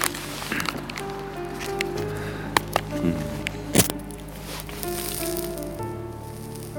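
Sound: lighter lighting a cigarette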